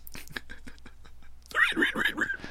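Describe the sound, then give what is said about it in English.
A person imitates a pig squealing: after a second of breathy, whispery noises, a loud run of high, nasal squeals pulses rapidly for about a second. “That sounds really accurate. I'm very good like. at squealing like a pig.”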